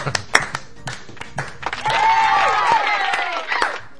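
A short burst of scattered, irregular hand claps for a viewer's one-euro donation, then a sustained wavering, whistle-like tone layered over continued clapping for a couple of seconds before fading.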